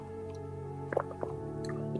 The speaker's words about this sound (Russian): вот когда я делаю глоток, я познаю.